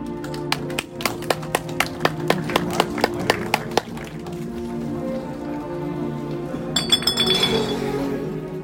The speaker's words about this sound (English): so you hear a bunch of bottles just clanging together.